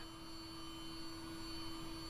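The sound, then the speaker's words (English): A steady mechanical whine and hum from spacesuit fans and pumps running at steady state, like a vacuum cleaner mixed with a microwave, droning continuously at an even level with a sharp tonal line and no voices. “I recorded um, the ambient noise of what when the when the fans and the pumps are running at steady state that so, sort of a cross between a, a vacuum cleaner and a, and a, microwave maybe that sort of steady whining hum I recorded that”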